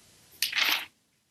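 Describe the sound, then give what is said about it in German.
A single quick rustle of paper as notes are flipped through, fairly crisp, lasting about half a second with no talking around it. “kurz auf meinen Zettel. Dann hört sie blättern.”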